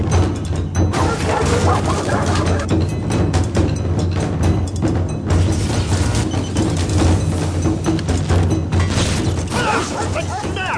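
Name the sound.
dog barking and whimpering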